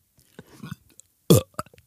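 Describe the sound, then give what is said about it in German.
A loud burp erupts after some quiet mouth noises, followed by a few short faint clicks and breaths. “Ich will nur noch das Rülpsen.”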